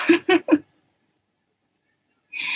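Three short, quick meows in a row from the cat Kuta, then a pause and a longer, higher-pitched meow rising at the end. The calls are clear, with no one talking.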